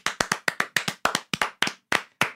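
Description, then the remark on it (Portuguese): A quick run of about fifteen sharp hand claps with an uneven, slightly off-beat rhythm, loud and crisp, with no talking. “Essas palmas, elas foram um pouco desincronizadas mas tudo bem.”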